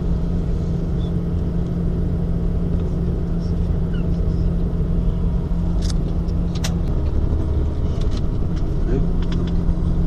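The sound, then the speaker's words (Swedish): A ferry's steady, heavy low engine rumble, heard from inside a bus aboard the ferry, drones evenly throughout with a few faint clinks and rattles near the middle. “i bussen på färjan.”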